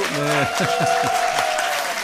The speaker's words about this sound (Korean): 우리 KBS의 고급 인력 우리 기술진들이 이거 열심히 해서 만든 스튜디오거든요. 수고 많았다고 격려의 박수.